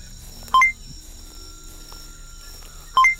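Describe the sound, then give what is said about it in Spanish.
Two short electronic beeps, each a clear two-tone pip, spaced a couple of seconds apart over a faint steady hum, as a datalink device chimes to announce an incoming notification. “comienza a escuchar un pitido ¿Habéis que parece anunciar algo, parte del datalink”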